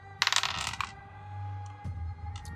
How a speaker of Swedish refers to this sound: Det skulle definitivt passa här, så då får du slå två tärningar.